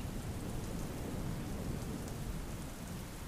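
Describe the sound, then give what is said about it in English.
Steady heavy rain pours down with a deep, rumbling low end of thunder rolling underneath, a continuous storm wash with no voices. “I hope you enjoy the following true scary stories with a backdrop of my favorite sound in the world a thunderstorm.”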